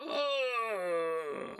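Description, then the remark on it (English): A fairly loud voice mimics a creaking door swinging open: one long, strained groan that slowly sinks in pitch for over a second, then fades into a breathy rasp. “Ugh, was the sound of a door being opened by no one.”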